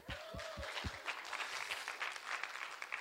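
An audience claps steadily, a dense wash of many hands, with a few low thumps near the start. The applause stays fairly even and moderately loud throughout, with no voices standing out.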